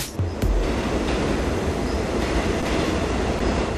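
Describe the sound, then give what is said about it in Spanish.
A metro train rumbles steadily along the rails, a dense low roar filling the space with a faint high whine above it and occasional clanks from the wheels. No one speaks. “Por ello es diferente el sonido que escuchas al viajar en la mayoría de las líneas del metro o cuando te trasladas específicamente por las líneas B y 12, donde hasta piedras salpican cuando toma una curva en su trayecto.”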